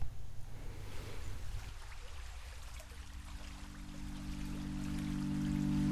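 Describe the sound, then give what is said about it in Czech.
Steady rushing of the flowing Opava river in a field recording made outdoors, with a low sustained musical drone rising in after a couple of seconds and slowly swelling beneath the water. “Slyšeli jste ukázku ze skladby, která vychází z terénních nahrávek z okolí řeky Opava a kombinuje hudbu a zpěv.”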